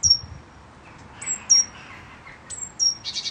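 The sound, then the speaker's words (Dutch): A great tit in a small town garden in Zeeland gives repeated high, thin peeping calls, each a sharp descending whistle followed by a steady tone, spaced about a second apart, clear with no one talking. “Moet je horen wat de koolmees ondertussen doet. Piepen, lokken, denk ik ook.”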